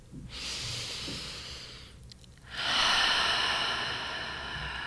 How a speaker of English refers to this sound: We're going to start by taking some deep and slow breaths, just breathing in through your nose, out through your mouth.